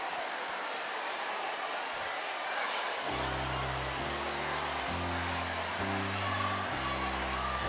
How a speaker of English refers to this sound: All right, let's let's let them discuss amongst themselves.